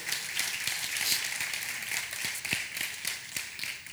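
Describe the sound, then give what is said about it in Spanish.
An audience applauds a singer and her worship team after a devotional, a steady, dense wash of many hands clapping at an even loudness for the whole span, with a few sharper individual claps standing out. No one speaks. “Que esta ciudad un fuerte aplauso a … y a su equipo.”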